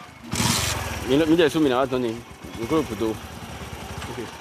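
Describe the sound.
A motorcycle taxi (zémidjan) engine starts with a brief rough burst, then idles with a steady low chugging beneath people talking over it.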